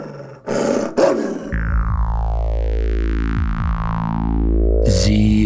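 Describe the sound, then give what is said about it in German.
A dog growls and snarls loudly: two harsh, raspy bursts, then a long, deep, continuous snarl with a warped, sweeping tone, ending in another rough outburst. “Äh, was machen Sie mit dem Hund?”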